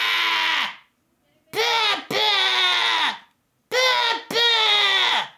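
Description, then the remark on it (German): A voice imitates a child in a garden screaming "Mama", shrill, drawn-out screams, five loud wailing calls in two bursts with short pauses, each rising then falling off, delivered a little away from the microphone. “Mensch, was ist da los und warum schreit dieses Kind die ganze Zeit?”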